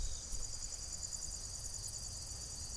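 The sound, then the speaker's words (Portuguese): A steady, continuous trill of crickets and other insects fills a quiet nighttime outdoor scene on the bank of the Paraná River at Guaíra, with a faint low rumble underneath and no voices. “olha, ouçam o som. A beira do rio Paraná, em Guaíra.”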